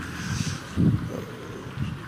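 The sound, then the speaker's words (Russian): On a windy day, wind buffets the microphone in low, rumbling gusts, swelling sharply twice over a steady breathy hiss, fairly loud with no voices. “Спасибо за понимание, у нас сегодня ветрено.”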